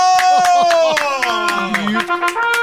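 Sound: hand clapping applause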